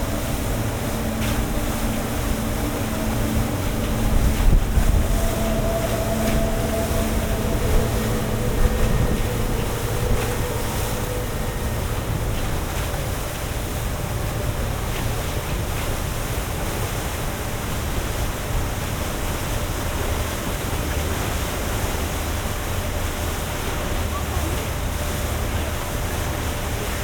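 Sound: boat moving on water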